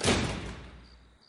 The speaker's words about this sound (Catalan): Sento que la porta del mas es tanca d'un cop sec.